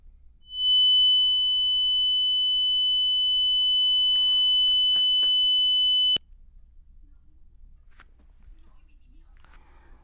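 A loud, steady electronic test tone holds for about six seconds, a broadcast signal drop-out as a Vietnamese news broadcast loses its link to a reporter at My Dinh Stadium after the SEA Games 31 U23 Indonesia–Malaysia match, then cuts off abruptly, leaving faint background hiss and soft murmuring.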